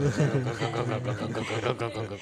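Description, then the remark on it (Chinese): A voice imitates a neighbour's air conditioner compressor as heard on a summer night, with a steady, low, rattling hum that wavers slightly in pitch for about two seconds, with no words spoken. “你们有没有看过，就是某一些夏天夜晚的时候，你们没有睡觉，然后你们可能在阳台抽根烟的时候，你会听到隔壁冷气压缩机的声音，它会连着那个整整台这样，”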